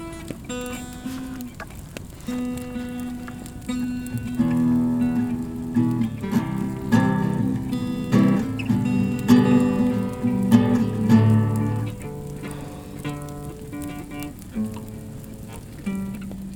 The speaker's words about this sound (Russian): Прям да. слышно классно. Костер горит.